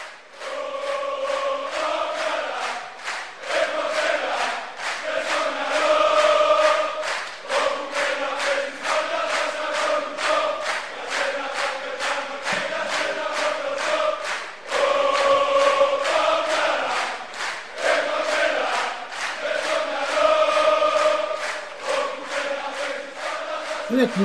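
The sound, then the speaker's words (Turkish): A large crowd of passionate football fans in a stadium chants together in a steady, rhythmic sing-along, voices loud and continuous throughout, with repeated surges in the cheering. “Ee, bu sene kazandılar ama o ateşli taraftarlarını bir dinleyelim bakalım.”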